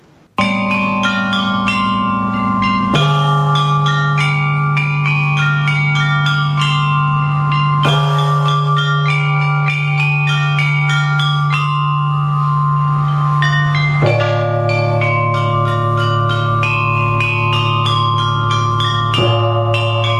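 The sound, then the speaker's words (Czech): Bells of a Confucian temple ring in a slow, resonant chime, each deep tone sounding every few seconds and sustaining under a steady shimmer of lighter, quicker strikes. Loud, with no voices. “první tady máme krátký vstup eh, Konfuci, z Konfuciova chrámu zvony.”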